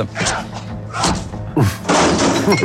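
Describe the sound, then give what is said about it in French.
A flurry of punch sound effects: heavy, dull thuds and smacks landing in quick succession, loud and full-bodied, with a brief lull before a harder burst of blows. “Coup de poing”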